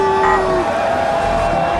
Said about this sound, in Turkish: Polis arabalarının yanıp sönen lambalarından yansıyan ışıklar öfkeyle çalkalanan kalabalığın üzerine vuruyor. Kendi aralarında yüksek sesle konuşan, bağırıp çağıran kalabalığı yarıp eve ulaşmaya çalışıyor.